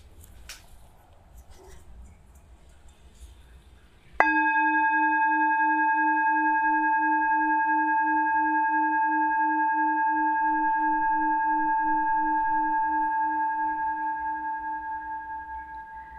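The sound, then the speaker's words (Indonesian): A singing bowl is struck once, marking the start of a breathing exercise, ringing out with a clear sustained tone and shimmering overtones that slowly fade over about twelve seconds, after a few seconds of quiet background noise. “Latihan ini akan dimulai dan diakhiri dengan tanda satu kali bunyi singing bowl.”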